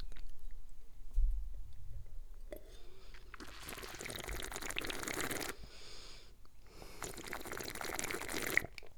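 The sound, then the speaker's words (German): Two drawn-out bursts of wet slurping as people sip and taste wine, each lasting a couple of seconds with a brief pause between, without talk. “Wir probieren mal, ne?”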